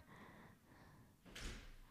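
A front door opens as someone comes home, with a single short, fairly loud clatter and rush of air partway through, set against a quiet, faint hum with no one speaking.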